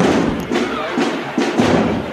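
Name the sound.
drum roll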